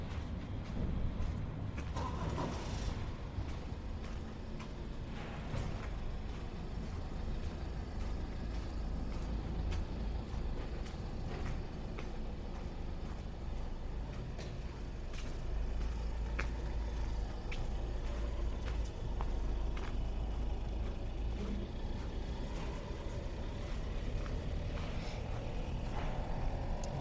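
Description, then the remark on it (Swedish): Steady low rumble of street traffic in Stockholm by the German Church (Tyska kyrkan), under a light-blue sky with very few clouds, with engines droning and a heavy vehicle passing, plus scattered clicks and brief higher sounds over the continuous hum of the city waking up. “Hör du eh, ljuden av stan som vaknar?”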